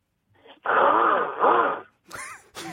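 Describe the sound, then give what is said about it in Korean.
A voice imitates a mail carrier's motorcycle revving up from neutral: a loud, raspy, throaty drone with rising and falling pitch swells, followed by brief vocal noises. “아, 그 오토바이가 예. 중립에 났다가 이렇게 땡겼을 때 나는 소리가 있어요.”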